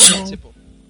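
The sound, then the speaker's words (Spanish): A single loud sneeze bursts out, sharp and breathy, then trails off quickly into a quiet background hum. “Salud.”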